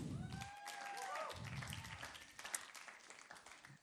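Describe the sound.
An audience claps and applauds in a dense, steady wash of hand claps, with a few whoops and cheers rising over it and some voices talking at the start.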